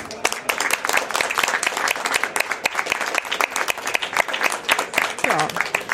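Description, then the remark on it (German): Sustained audience applause on site at a congress, a dense steady patter of many hands clapping throughout, with a faint voice briefly rising above it near the end. “großen Applaus, würde ich mal sagen, hier vor Ort.”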